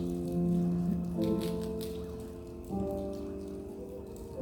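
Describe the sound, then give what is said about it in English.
A dense, scattered crackling of many plastic communion cup seals being peeled open at once during a church communion, to get to the bread and juice, like light patter, running steadily beneath a sustained, droning musical tone, with no voices. “If you rip the first one open, to get to the bread. And then the second will give you the juice.”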